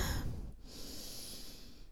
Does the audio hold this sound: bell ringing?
no